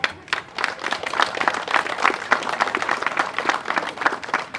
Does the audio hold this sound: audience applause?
yes